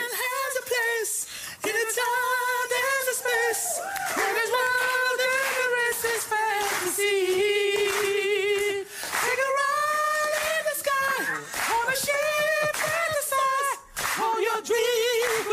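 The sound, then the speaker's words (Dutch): A recording of two men singing together in high falsetto voices, holding long sustained notes in a steady, continuous passage, fairly loud, with no talking. “Dat je, dat je hebt een aardige kopstem in huis. Heel even luisteren naar een klein oh. stukje”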